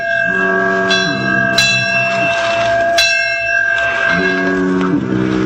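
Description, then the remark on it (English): Life buoy bells ring out at night on the ocean beyond sight of land amid big waves: a couple of sharp metallic clangs over long, sustained ringing tones and a low, surging rumble, loud and steady with no voices. “Out there in the ocean beyond the sight of land, Little Toot spent a frightful night, tossed about by the big waves while the life buoys and sounds in the night made eerie noises.”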